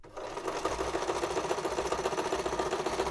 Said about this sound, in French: et passer ses nuits à la machine à coudre pour nous faire nos vêtements, dans des vêtements de, mes grands-parents qui étaient morts et tout ça.